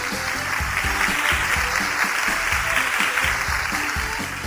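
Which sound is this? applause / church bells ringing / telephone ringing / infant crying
applause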